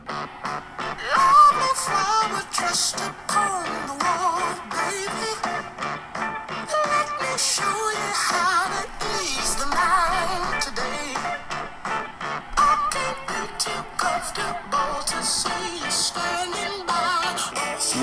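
A full-band southern rock song plays steadily at a strong, even level, with a singer's voice carried over driving electric guitar and drums throughout.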